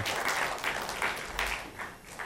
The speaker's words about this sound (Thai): แล้วตบมือให้สับคนที่รับเชื่อพระเจ้าดีเลยครับ อาเมน